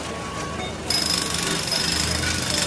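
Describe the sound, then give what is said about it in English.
A voice imitates an electric toothbrush with a steady, rattling buzz that runs throughout and jumps louder and brighter about a third of the way in. “She has an electric toothbrush.”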